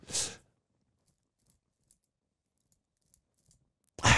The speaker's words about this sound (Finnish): Pahan kunniaksi mä niinku seivästi meidän Michael Myers-maskin meidän muovipuukollamme